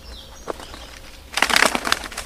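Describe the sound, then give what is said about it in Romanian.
A wood pigeon bursts into flight, its wings clattering in a rapid run of loud, dry flaps, following a quiet moment with one faint tap. “La decolare, aripile produc un turuit puternic ce servește și ca sunet de alarmă.”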